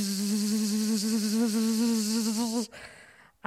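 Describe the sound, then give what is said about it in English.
A voice imitates the buzzing of wasps in a bedroom with a steady, wavering drone that lasts a few seconds, fairly loud, then cuts off abruptly into quiet. “You know, just yesterday, I walked into my bedroom yesterday and my bedroom was buzzing.”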